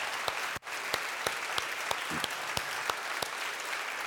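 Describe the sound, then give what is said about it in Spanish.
An audience applauds at Christmas in gratitude and praise to God, a dense wash of hand claps with a steady rhythmic beat running through it, sustained at even loudness with no talking over it. “por todos aquellos que desde esta Navidad, en estos tiempos especiales, reconocen a Cristo como Señor y Salvador, damos un aplauso de gratitud y de alabanza a nuestro Dios.”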